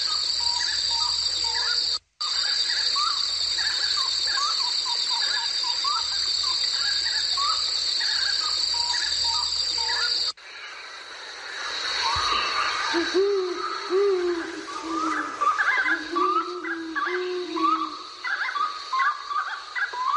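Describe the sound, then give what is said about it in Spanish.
A wood rail calls in a run of repeated, hollow, hooting notes in the second half, over a steady high insect drone and scattered chirps from other birds. “Mira, qué lindo qué te parece el chiricote que canta todos los días al atardecer en el museo, en el Museo Hudson.”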